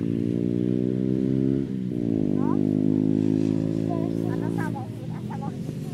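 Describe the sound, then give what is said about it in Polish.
Loud motorcycle engines drone past on a hill road, some riding down and one going up, riders leaning to the side, their pitch dipping and then climbing again as they ride by, with faint voices briefly audible underneath. “Sam motorki sobie zjeżdżają. A tu do góry jedzie.”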